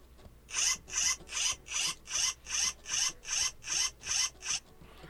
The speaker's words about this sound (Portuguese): É um som de zíper de plástico, gente. zíper de plástico.